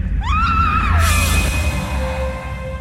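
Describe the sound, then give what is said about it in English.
A woman lets out a short, high scream that rises sharply in pitch as something strikes her in the gloom, then is cut off by a sudden loud burst of noise, with a heavy low rumble underneath throughout. “It strikes her in the gloom so fast she barely has time to scream.”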